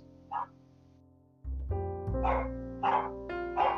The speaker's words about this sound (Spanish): Pero no importa. es que es un día feriado, entonces tengo a todos los chicos de la cuadra andando en bicicleta. y, mi, mi, bulldog francés vuelta loca ladrándole.